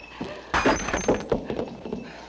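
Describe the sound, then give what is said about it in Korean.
A drinking glass smashes with one sudden, loud crash, followed by a second or so of bright, scattered tinkling as the shards settle. “잔좀 깨지 않고 얘기할 수 없니?”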